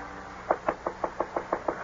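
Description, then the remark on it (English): A steady series of eight sharp knocks on a door, evenly spaced, with no voices. “Who's there? It's Dr. Kenneth. Open the door.”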